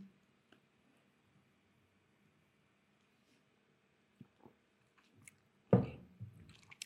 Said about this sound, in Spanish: y déjame echo otro traguito aquí de la Báltica 6